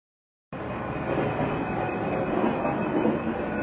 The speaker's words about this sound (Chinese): 车轮滚过铁轨时，发出咔啦咔啦的声音，充满了节奏感，仿佛是一首没完没了的副歌。